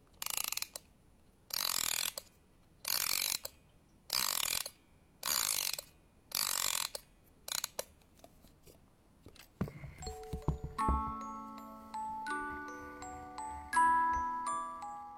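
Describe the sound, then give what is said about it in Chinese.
A music box from a personal collection of bells and music boxes, used as background music, is wound with about seven loud, evenly spaced bursts of ratcheting clicks, then a short pause before its tinkling comb melody starts, bright plucked notes ringing and overlapping over a low hum. “这期的所有配乐都来自他收藏的铃铛和八音盒。”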